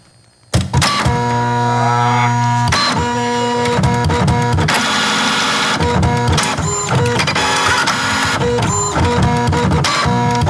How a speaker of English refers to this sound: grab me that piece of paper out of the printer, will you? Yeah, sure. Here we go.